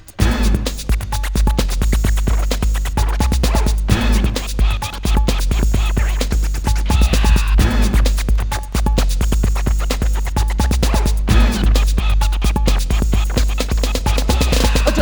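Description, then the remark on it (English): Rapid turntable scratching cuts back and forth over a loud, steady beat with heavy bass, the choppy record scratches repeating rhythmically throughout with no voices. “Turntables, records we are abusing, rolling with the sound of the kick drum.”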